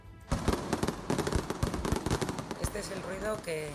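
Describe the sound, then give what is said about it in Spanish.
Fireworks launched by the town council crackle and bang in a rapid, dense barrage of sharp, loud pops, with a voice briefly audible under the bursts near the end. “El ayuntamiento ha tomado medidas a la hora de lanzar los fuegos artificiales, entre ellos la reubicación de la zona de lanzamiento, pero los vecinos continúan denunciando la caída de restos.”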